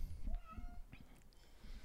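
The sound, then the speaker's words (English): A cat meows a couple of times, its short tonal cries rising and falling over a low background rumble. “Come on, you better come in here, cat.”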